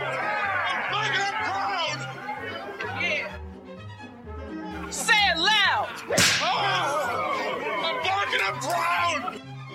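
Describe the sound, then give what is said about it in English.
A short show bumper jingle with a steady, bouncing bass pattern, layered with busy chattering voice effects and a sharp whip-like crack near the middle, played loud. “I'm gonna go ahead and bumper us for a second here.”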